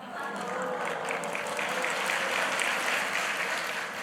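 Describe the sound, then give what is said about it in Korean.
An audience applauds steadily for about four seconds, a dense, even wash of many hands clapping at a fairly strong, constant level with no voices standing out, applauding the news that a pastor lost 10 kg. “그게 이제 박수 칠 일이야?”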